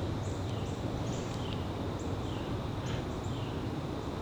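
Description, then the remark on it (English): A Carolina wren's puttering call, a faint series of short, high chirps repeated irregularly throughout, set against a steady hiss of outdoor background noise. No one speaks. “That kind of puttering sound is our Carolina wren.”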